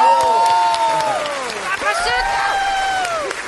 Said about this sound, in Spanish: Recibamos con un fuerte aplauso al señor Nicolás Montero.